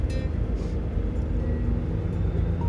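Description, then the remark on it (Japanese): A steady, loud low rumble of road and engine noise from inside a car moving in the passing lane of a highway with a computer on board, constant throughout with faint higher whines drifting in and out. “やっと追い越し車線だよいけるかあんまりね飛ばしたくないんだ今日パソコン積んでるから”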